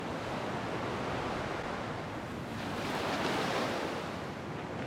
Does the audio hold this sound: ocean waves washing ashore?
yes